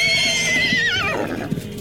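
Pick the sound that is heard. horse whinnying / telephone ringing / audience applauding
horse whinnying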